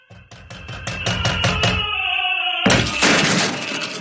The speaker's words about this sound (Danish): Politiet ankommer så, og øh, de øh, banker på døren. Og øh, der sker ikke rigtig noget. De forsøger igen.